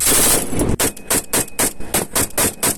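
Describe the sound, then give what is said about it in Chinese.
Loud, rapid gunfire during a live-fire exercise by Ukrainian Border Guard personnel of the Odesa first maritime guard unit in near-shore Black Sea waters: a steady string of about nine sharp, cracking shots in quick even rhythm, following a brief wash of dense noise, with no voices. “刹那间，枪声大作。”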